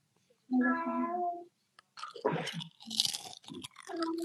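A cat gives one drawn-out, mid-pitched meow lasting about a second, followed by a burst of irregular crunching, chewing-like noises. No one speaks.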